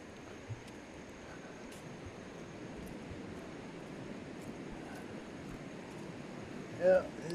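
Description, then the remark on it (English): Light rain begins outdoors, a steady soft hiss of falling drops with occasional faint taps, spread evenly through the whole stretch with a brief louder rustle near the end. “starting to rain already.”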